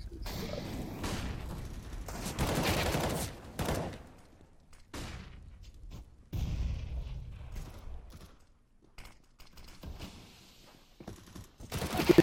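video game gunfire

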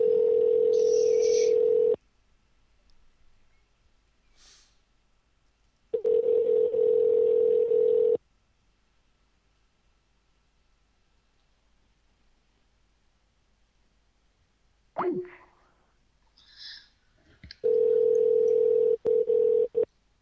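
telephone call ringing unanswered

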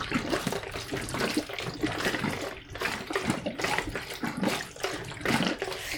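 water running

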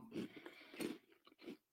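chewing crunchy food

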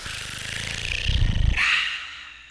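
page turning sound effect

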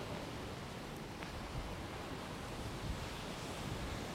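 roaring sea waves

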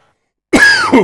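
coughing

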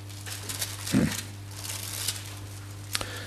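bible pages being turned

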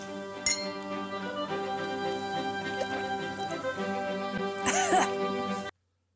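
glasses clinking

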